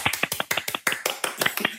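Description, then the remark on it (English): Two people clap briefly for the guest Jujubee, their sharp, bright claps overlapping in a quick, slightly uneven patter, around fifteen claps in under two seconds, with no voices. “Uh, you, two people, two people clapping, which is pretty normal.”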